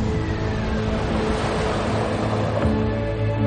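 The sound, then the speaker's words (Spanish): A steady, loud wash of surf rolls along a beach shore of rocky sand, with a low engine-like rumble humming underneath throughout. No one speaks. “Más tarde, los ladrones dejan a la directora a orillas de una playa y se marchan en la furgoneta.”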